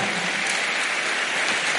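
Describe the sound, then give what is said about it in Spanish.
An audience claps steadily for the Lord, dense overlapping hand claps forming a continuous, loud wash of applause with no pauses and no voices on top. “Dele palmas al Señor.”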